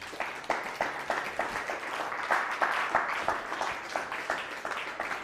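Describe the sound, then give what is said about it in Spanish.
An audience breaks into applause for the Holy One, Blessed be He, a dense patter of many hands clapping that swells slightly in the middle and holds steady for several seconds with no voices. “Dele un fuerte aplauso al Santo Bendito sea.”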